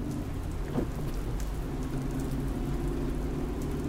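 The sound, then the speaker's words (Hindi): Steady, dense rain hisses without a break during a car journey from Solapur to Osmanabad in Marathwada, India, backed by a deep, continuous low rumble like thunder. No voices are heard. “सोलापुर उतरकर गाड़ी में 70 किलोमीटर दूर उस्मानाबाद जाना था जहाँ संगठन की महिलाएं मुझे मिलने वाली थी महानंदा साथ थी और बारिश भी”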